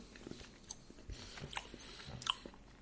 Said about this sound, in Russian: Муксбанг звучит сочно, но я имею в виду, дыхание не мешает вам?